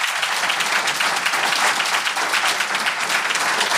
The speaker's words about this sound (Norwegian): En applaus til alle tre.